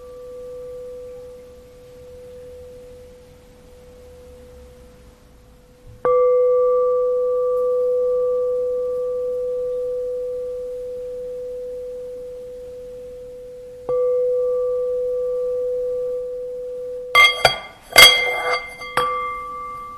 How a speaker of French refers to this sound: Je vais jouer un peu avec la cloche, pas pour euh, indiquer la fin de la méditation, mais juste pour explorer le plaisir, le déplaisir et la neutralité. Voyons, voyez comment les sons sont reçus.